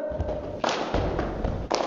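A group plays the 'tepuk salut' clapping game, clapping in a patterned rhythm, with several broad, fairly loud hand strikes and muffled thumps spaced across a couple of seconds, busy.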